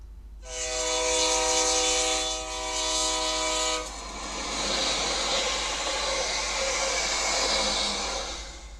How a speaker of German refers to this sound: Was war das? Die Eisenbahn, das Taxi, der Traktor? Das ist die Eisenbahn. Genau, die Eisenbahn.